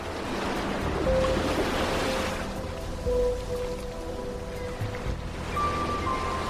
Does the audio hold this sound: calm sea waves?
yes